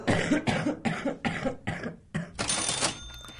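A rapid fit of harsh coughing, about six sharp coughs in quick succession ending in a longer, raspier cough, loud with no talking.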